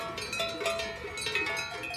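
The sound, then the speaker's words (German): Cowbells ringing high in the mountains in fog, at under 20 degrees, a steady overlapping clatter of metallic clanks with bright, sustained tones, several bells sounding irregularly at a moderate level with no talking. “Ja, ich würde sagen, wir hören uns jetzt noch so ein bisschen dieses meditative Glockengeläut äh, an und dann geht es wieder weiter durch den Nebel.”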